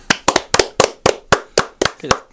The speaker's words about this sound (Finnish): Jaetut aplodit ovat kaksinkertaista aplodit tässä tapauksessa.